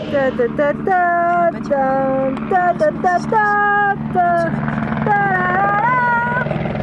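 A police helicopter's steady, low rotor drone throbs throughout, loud, while warbling, wavering high tones rise and fall over it in short bursts.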